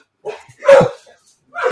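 Dogs barking in short, sharp bursts: a yip, then a louder bark, and another bark a moment later. Fairly loud, with no talking over them.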